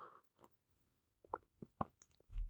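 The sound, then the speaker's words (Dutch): Someone takes a sip of water: a handful of soft, wet gulps and plopping clicks spaced irregularly, then a brief low thump at the end, with no talking. “Ik moet even een slokje water, twee seconden.”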